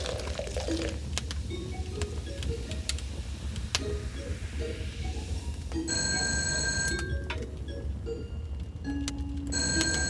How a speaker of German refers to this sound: Wer traut sich um diese Zeit anzurufen? Ich weiß es nicht. Soll ich das Telefon bringen?